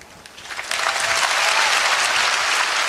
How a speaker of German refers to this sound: Viel Applaus hat Angela Merkel gestern an der amerikanischen Elite-Universität Harvard bekommen.